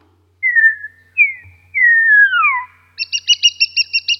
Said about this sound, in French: Des chants, on va dire, universels qu'on rencontre chez tous les étourneaux du monde, en tout cas les étourneaux mâles, qui sont euh, les sifflements mentionnés euh, ici, en haut, la classe 1.